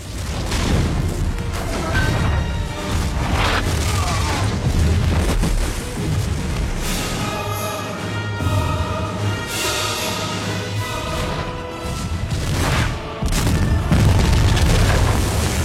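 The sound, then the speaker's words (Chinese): Rapid volleys of cannon fire and booming explosions from two ships taking turns firing at each other in a film's sea battle roll over one another, loud and dense throughout, with deep rumbling bursts and crackling debris layered under a swelling dramatic musical score. “既然如此，双方直接就开打了，轮番开炮，拼的就是勇气。”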